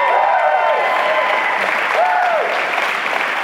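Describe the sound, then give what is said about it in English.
A large church audience applauds steadily for several seconds, giving praise to God, with scattered cheers and whoops rising above the dense, continuous clapping, loud throughout. “If you believe that, give God a praise for a moment.”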